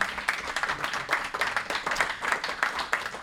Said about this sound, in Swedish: Välkommen fram. Kan inte hon få en applåd?